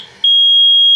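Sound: smoke detector alarm beeping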